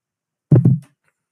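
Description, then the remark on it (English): The seat of a new chair being lowered: a quick double clunk with a short low creak, heard alone against silence and lasting under half a second. “Let's lower this just a little bit.”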